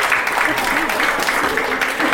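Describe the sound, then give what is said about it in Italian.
An audience applauds the class segment "Vi racconto un quadro" in a dense, steady wash of clapping that stays loud and even for about two seconds, with a few faint voices mixed in underneath. “No, signori, un grande applauso alla nostra rubrica Vi racconto un quadro.”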